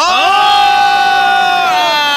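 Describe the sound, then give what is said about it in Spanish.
Crowd cheering rises into a loud, sustained whoop that holds a steady pitch for about two seconds before trailing off, with no speech over it. “No necesito sus, no sus porras, porque ustedes son hipócritas. Le aplauden a él, me aplauden a mí, pues a todo el mundo le aplauden.”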